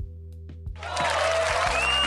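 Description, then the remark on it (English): After a brief low thumping lead-in, a loud, dense round of applause for NBA player Scottie Barnes bursts in and keeps going steadily, with faint whistle-like tones riding over the clapping. “Oh yeah, we're gonna do a round of applause for Scottie Barnes.”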